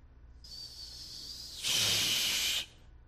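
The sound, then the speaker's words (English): A voice imitates a pot of water or ramen noodles boiling over: a thin, steady hiss that swells into a louder, rougher burst of sputtering hiss for about a second before cutting off. “You ever boil water or you got some ramen in there or noodles or something and you don't pay attention to it?”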